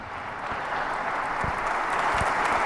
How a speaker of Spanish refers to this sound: están recibiendo el aplauso de los asistentes a este.